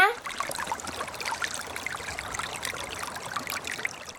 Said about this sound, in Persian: چه جالب درست میگی ما تو فارسی به این صدا میگیم چک چک